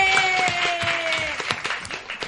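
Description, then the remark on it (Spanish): A small group claps together in a brief, uneven burst of applause for MBL, the sharp overlapping claps running steadily for a couple of seconds, with a faint steady tone humming underneath. “Oye, aprovechemos la luz una, una, un aplausito al MBL, que donde quiera que esté, puteando, a donde sea.”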